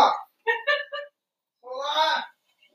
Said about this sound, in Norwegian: Det jævla tørketrommelen piper og Nei, jeg gidder ikke å sette opp pause. Da får jeg bare høre på at jeg går og skrur av den.